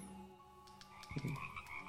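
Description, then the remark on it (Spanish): A toad croaks in a short burst of rough, pulsing calls midway through, fairly quiet, over a faint steady background hum with no talking. “Un sapo.”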